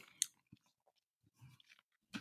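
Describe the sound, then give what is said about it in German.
Quiet chewing of slightly rubbery food with a few crunchy, wet bursts at irregular intervals, then a swallow, ending in a louder burst of mouth noise. “Das soll ich auch erstmal runterschlucken.”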